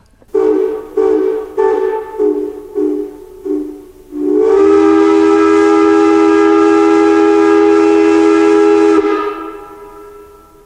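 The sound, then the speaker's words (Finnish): A steam locomotive's whistle gives a quick run of short, uneven toots, then one long, loud, steady blast that holds for several seconds before cutting off. No voices are heard. “Toki höyryveturikin söi hiiltä, mutta se oli Englannissa lähes ilmaista.”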